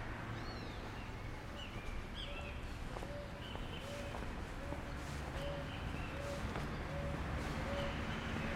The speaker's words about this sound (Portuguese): Antes desse carro parar, a gente estava ouvindo uma rolinha ao fundo.